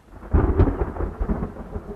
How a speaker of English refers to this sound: Still, when that next late summer thunderstorm arrives, you have to think, those temporary puddles are going to look mighty refreshing.